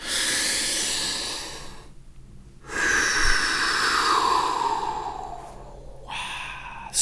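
A slow, audible breath drawn in and then let out, a soft airy rush lasting a couple of seconds each way, with brief silent pauses between. No one speaks.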